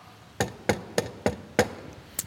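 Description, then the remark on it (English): Knocking on a door: five sharp, evenly spaced raps, then a short pause and a sixth, lighter knock. Each hit is crisp and fairly loud, with no voices. “Knock”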